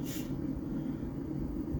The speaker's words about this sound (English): Um, I apologize for the sniffles once again, and I hope you all have a fantastic, wonderful, positive day.